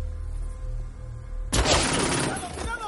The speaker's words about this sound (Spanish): Wolf le dispara. Los demás corren y disparan. Dentro están asustados. Disparan hacia Wolf, que devuelve los disparos. Wolf mata a un hombre. Los demás se refugian y disparan.